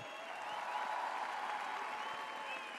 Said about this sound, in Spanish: Buenas noches, Quinta. El primer aplauso para el ballet, fuerte el aplauso, muchachos.